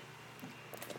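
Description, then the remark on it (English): Faint crinkling and clicking of a plastic water bottle being handled, a few soft crackles clustered toward the end, with no voices. “Sorry if you keep hearing my water bottle.”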